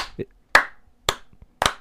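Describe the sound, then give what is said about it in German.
A few slow, sharp hand claps given belatedly, about three in a row at an even, deliberate pace. They are fairly loud, with short gaps of near silence between them. “Da kriege ich keinen Applaus oder was?”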